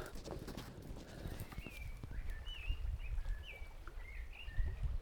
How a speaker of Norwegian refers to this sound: Å, folkens, skal vi få med oss litt eh, svarttrost? Dere som ikke har hørt den ennå.